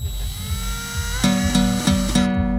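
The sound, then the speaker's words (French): A power drill whines steadily, then revs in four short, rhythmic bursts near the end before cutting off. No one speaks. “en passant, vous allez entendre le bruit de la perceuse.”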